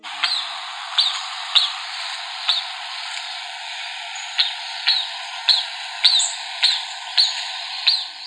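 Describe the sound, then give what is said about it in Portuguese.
A night monkey (Aotus) calling: a series of about a dozen sharp, high-pitched squeaky chirps at a fairly steady pace over a constant hiss, with no one talking. “hoje nós vamos falar sobre o curioso e fascinante macaco da noite do gênero Aotus.”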